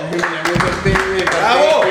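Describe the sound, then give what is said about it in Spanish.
Applause from a crowd welcoming guests Antonio Sanín and Julián Arango, with bursts of clapping mixed under loud cheering voices, lively throughout the short stretch. “yo estaba aplaudiendo a Antonio”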